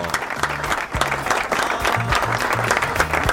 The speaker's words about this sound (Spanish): Vamos, Marta, un aplauso para la hija de Marta.